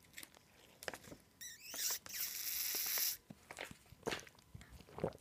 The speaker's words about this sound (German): Capri-Sonne, nervigstes Geräusch mit ihrem und so, das Knistern. Oh, und Kinder saugen ja so mega lange an diesen Dingern rum.